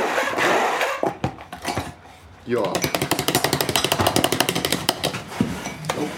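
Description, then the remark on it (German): A blender whirs in short bursts, then runs a rapid, rattling pulse of chopping tomatoes for several seconds, loud, with a brief spoken word near the start. “Das Unterteil vom Mixer.”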